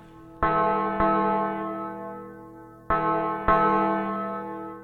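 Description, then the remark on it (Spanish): A church bell tolls four times in two paired strikes, each clang ringing out with rich, lingering overtones that slowly fade. No voices are present. “Se escucha una campana.”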